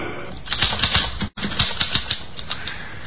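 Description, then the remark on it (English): Rapid, uneven clacking of typewriter keys as a letter is typed, struck in quick irregular bursts with a brief pause midway, fairly loud, with no voices. “Here's a typewriter.”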